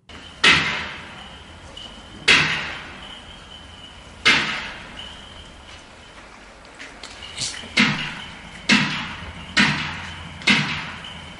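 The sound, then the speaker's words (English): A cricket bat strikes a meranti wooden door in a sound test, recorded 60 meters from the door, in sharp, cracking blows: three spaced hits to test the sound levels, then four more in quicker succession, each ringing out with a brief echo. “The first three blows of the cricket bat were done to test the levels of the sound, and then I did four in rapid succession.”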